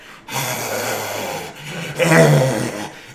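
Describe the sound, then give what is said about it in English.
Loud, heavy breathing: a long raspy inhale followed by a louder, rougher exhale with a low, throaty rumble, and no talking. “He picks up Lucius's fishbowl and a loud breathing sound is heard.”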